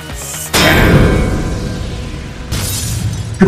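A loud shattering crash of a crown breaking erupts suddenly and rings out with scattered debris, followed by a second burst of breaking and a sharp final impact near the end. No one speaks.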